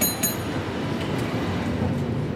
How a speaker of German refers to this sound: San Francisco Stadtmitte. Ein Cable Car, die legendäre Straßenbahn der Stadt, kämpft sich gerade die sehr steile Powell Street hoch.